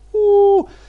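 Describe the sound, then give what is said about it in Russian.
A voice imitates a howling airplane with one steady, droning hum held for about half a second, then dropping off sharply in pitch. It is fairly loud and heard alone. “Либо там как какой-то вой самолета.”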